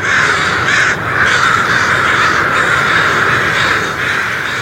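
A dense, continuous din of thousands of crows cawing at once as they leave their roost in Danville, Illinois, in the morning about an hour before sunrise, a loud overlapping wall of harsh calls with no gaps. No one speaks.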